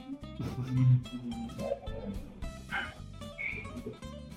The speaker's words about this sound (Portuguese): Os cachorros começam a latir quando você tá chegando, todo, todos empolgados, assim.